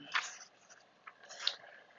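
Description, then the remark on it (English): Two soft slurping sips of tea, one near the start and another about a second later, with quiet pauses between and no talking. “Um, okay, so let me go ahead and take a sip of my tea.”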